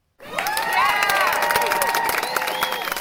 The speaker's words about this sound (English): Here at Dork Tales HQ, we're celebrating our 50th episode. Uh, cue applause.